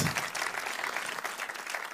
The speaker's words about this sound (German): Wollen wir denen nochmal einen Applaus geben hier?